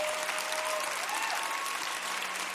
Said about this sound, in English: Everybody clap your hands and give God praise. Come on.